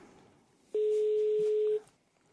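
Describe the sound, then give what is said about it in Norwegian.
A single steady, fairly loud electronic tone of about a second, the ringing signal of an outgoing phone call, with a faint hiss before and after and no one talking. “Han ser det et ukjent nummer, og så kanskje han er inne og skal google eller google ja.”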